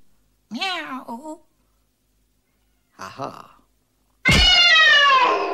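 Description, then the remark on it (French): A person imitates a cat meow, a drawn-out wavering mew followed by a shorter one after a pause, then a loud, sustained vocal burst. “Oh putain, tu fais super bien le chat.”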